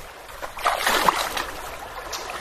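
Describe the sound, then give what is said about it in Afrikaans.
A river in the Pieters River nature reserve rushes and gurgles steadily, a broad hissing wash that swells briefly in the middle before settling back to a constant flow, with faint splashy textures and no voices. “Jy kry so warm en jy's moeg, maar as jy die water hoor, dan gaan jy net aan.”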